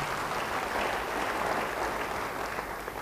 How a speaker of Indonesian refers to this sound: Yang mau beri tepuk tangan yang baik bagi dia.